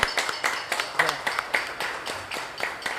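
A small audience applauds with brisk, steady clapping for a few seconds, the individual claps sharp and fairly close, at moderate volume.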